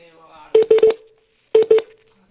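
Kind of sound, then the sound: signal or alarm, phone call dialing tones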